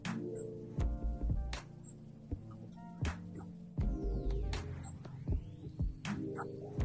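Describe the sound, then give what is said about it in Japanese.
A steady, low electrical hum from a bad connection with poor signal reception drones throughout, broken by repeated thumping bursts of crackly interference about once a second. No one speaks. “ちょっと電波悪いですね。”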